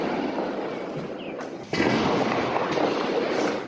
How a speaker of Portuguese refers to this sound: O silêncio da noite foi quebrado por longos disparos. Surpreendidos, os moradores de Araraquara registraram o tiroteio. Olha isso, velho, muito tiro.